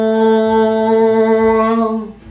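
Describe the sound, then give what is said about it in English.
A long, keening horn blast sounds through a city, holding one steady, reedy pitch for about two seconds, then fades and cuts off near the end. No voices. “hear this long keening horn sound through the city”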